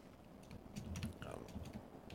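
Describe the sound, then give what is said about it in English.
Soft, irregular clicking of someone typing on a computer keyboard, a quick scatter of keystrokes over a low background hum. “would be probably better at that, but he's busy typing.”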